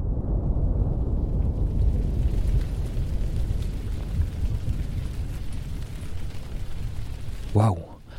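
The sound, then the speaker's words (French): A deep, continuous rumble of thunder rolls through the whole stretch, heavy in the low end, with a sharper crack breaking out near the end. “Des coups de tonnerre”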